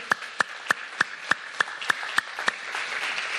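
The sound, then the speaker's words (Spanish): An audience claps for the Lord in a steady, even rhythm, about nine sharp claps, then the beat dissolves into a softer wash of scattered applause. No one speaks. “Ah, dele, una, dele palmas al Señor, hermano.”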